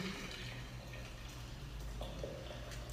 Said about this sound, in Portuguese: Verter a água, só para quem está ouvindo o nosso áudio, é colocar a água quente em cima da planta.